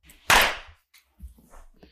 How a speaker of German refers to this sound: wir klatschen am Anfang einmal, damit wir synchron sind, damit die im Sto Tonstudio wissen, äh, wann wir anfangen zu reden